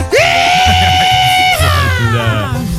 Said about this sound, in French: Oh, le, cri vient de où? C'est qui qui crie?